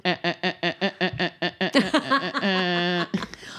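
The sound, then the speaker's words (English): A voice imitates a telephone off-hook tone, the noise of a disconnected phone not hung up in time, with about a dozen rapid, evenly spaced nasal beeps, then a short vocal flourish and a held, buzzing drone. “That was the sound of the phone was disconnected and you didn't hang up in enough time.”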